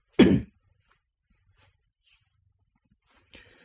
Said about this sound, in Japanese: 咳払い失礼します。